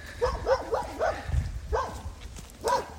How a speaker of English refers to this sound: Excuse the dog. Doggy dog.